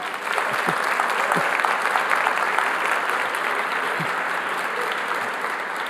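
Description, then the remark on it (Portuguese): An audience applauds its volunteers who accepted a challenge, a steady, dense wash of many hands clapping at an even loudness for several seconds, with a few sharper individual claps standing out from the crowd. “Uma salva de palmas para todos os nossos voluntários que aceitaram esse desafio.”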